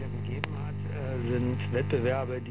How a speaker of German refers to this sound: In manchen Haushalten steht es noch, ein jahrzehntealtes Röhrenradio. Wer nach dem Einschalten kurz wartet, bekommt was zu hören.